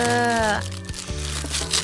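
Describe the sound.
A package of salted tomato jelly being opened, with crinkly plastic rustling and crunching for a couple of seconds, moderately loud, while a voice hums or vocalizes briefly over the start.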